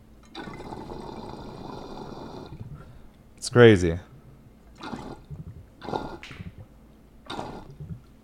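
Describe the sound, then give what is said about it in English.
Water bubbles and gurgles steadily through a glass pipe for about two seconds, fairly loud, followed by a short burst and a few brief spoken words. “It just moves so much water.”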